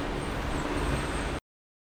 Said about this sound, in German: Auf der Straße mit Verkehr.